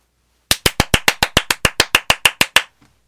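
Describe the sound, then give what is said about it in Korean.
A quick burst of enthusiastic 'seal' hand clapping for a birthday, about fifteen sharp, loud claps in a steady rapid rhythm over two seconds, with no talking. “물개 박수 받고 싶네요.”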